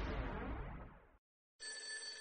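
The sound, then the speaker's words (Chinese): A telephone rings with a call from the forensic examiner at the city police bureau, in two bursts separated by a short silence: first a loud, dense metallic jangle, then a steadier electronic-sounding ring with sustained high tones. No one speaks. “这时，法医从市局打来电话。”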